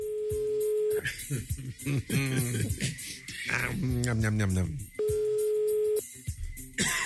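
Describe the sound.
A telephone ringback tone sounds twice as the Rádio Metrópolis radio show calls a listener, each a steady one-second electronic buzz about four seconds apart, while people talk over the gap between rings.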